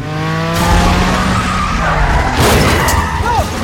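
Cars skid, swerve and swing around, crashing into each other, with tires squealing loudly and engines roaring underneath in a continuous, chaotic burst, a sharp rising squeal cutting through near the end.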